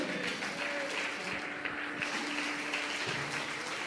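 Sustained applause given to God, called 'the king', at a preacher's call during a sermon: a dense steady wash of many hands clapping at an even loudness for several seconds, with no voices standing out.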